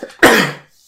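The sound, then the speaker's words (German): A single sharp sneeze bursts out after a brief intake of breath, loud and explosive for about half a second before fading to silence. “Gesundheit.”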